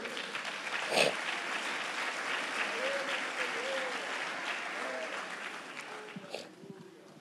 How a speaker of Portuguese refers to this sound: Quantos acreditam nisso, meus irmãos? Você pode levantar as suas mãos e aplaudir ao Senhor nessa noite?